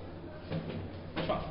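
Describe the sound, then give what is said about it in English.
A chair is pulled up, scraping and bumping across the floor in two short, rough drags, fairly quiet, with a low hum underneath and no talking. “Why don't you pull a chair up?”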